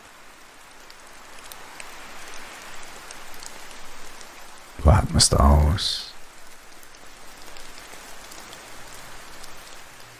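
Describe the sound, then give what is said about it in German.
Steady rain and wind, the drops pattering throughout in a soft, continuous hiss, with a brief calm spoken phrase rising over it midway before the rainfall carries on alone. “Und dann lässt du alles, was nach diesem Regen kommen mag, mit Entspannung, Vorfreude und Zuversicht entstehen.”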